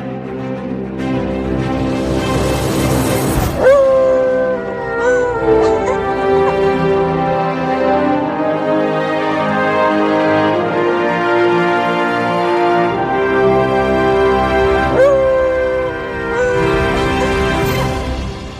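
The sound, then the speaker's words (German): A theme song plays at full volume for the whole stretch, with layered instruments and sustained melodic lines, punctuated by a couple of bright swelling accents. “Vorher gibt es wie immer die Hund. Die, die Hunde, die Hund. Die Hymne mit Manny und Lulu.”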